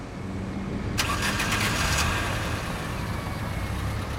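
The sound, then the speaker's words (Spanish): A car engine cranks and fires up in the car park of Plaza Mayor in Madrid, a burst of whirring starter noise for about a second before settling into a steady low idle rumble, with no voices. “con equipo nos acabamos de subir a un coche en el parking de la Plaza Mayor de Madrid.”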